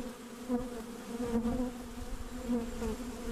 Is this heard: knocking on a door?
no